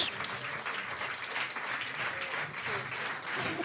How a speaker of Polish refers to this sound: Bijcie, bijcie im brawo! mocno i głośno, bo na to zasłużyli bardzo.